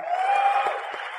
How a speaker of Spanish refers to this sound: para quien les pido un fuerte aplauso